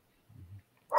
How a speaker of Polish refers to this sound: Słyszysz, jak jeden pies szczeka, to przyciąga drugiego.